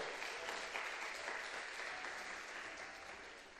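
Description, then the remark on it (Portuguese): A crowd applauds Jesus at a preacher's call, a dense wash of steady clapping that holds strong throughout and eases off slightly toward the end, with no voices standing out. “Aplauda Ele porque Ele é bom.”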